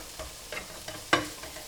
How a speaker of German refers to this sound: Dann wird einmal das Gemüse so ein bisschen durch die heiße Pfanne verteilt und ein bisschen durchgemischt.